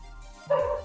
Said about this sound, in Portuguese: ele tem uns vizinhos ali, com vários cachorrinhos. E aí os cachorros às vezes ficam animados, né, amigo?